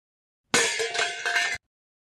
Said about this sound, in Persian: نه درس ماما این صدا در قابلمه بود